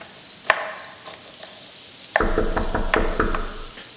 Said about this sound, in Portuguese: Alguém bate na porta.